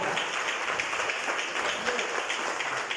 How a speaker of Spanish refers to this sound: Déselo al Señor ese aplauso fuerte, por favor.